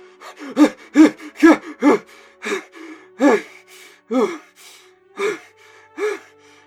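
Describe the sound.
A voice imitates the frantic panting of a character who has fallen onto the ground and is freaking out, with rapid, ragged gasps coming in quick bursts about every half second, loud, with no words spoken.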